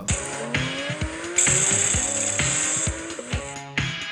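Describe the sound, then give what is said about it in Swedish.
A turbocharged car engine revs hard through several gear shifts, each shift cut by a sharp, hissing whoosh from the blow-off (dump) valve venting to relieve the turbo and keep its speed up during the shift. Loud, with no talking. “Men det, det, ja, men, det finns såna enkla grejer som dumpventiler.”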